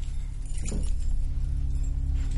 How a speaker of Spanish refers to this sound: Arriba, Alex saca las llaves de la puerta del recibidor.